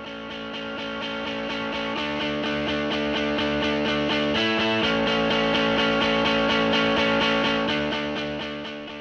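Loud, dense distorted electric guitar music with a steady driving rhythm and layered effects, playing continuously with no voices, easing up slightly at the very end.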